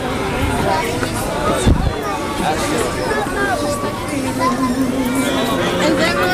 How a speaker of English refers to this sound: Somebody's getting yelled at. Young man. His mom was giving him what for? as you can hear.